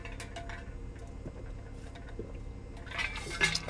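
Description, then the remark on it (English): Ice-cold water pours into a glass, a steady liquid trickle that brightens and rises toward the end, with faint clinks that could be ice; no one speaks. “I didn't even cut us out for a water break.”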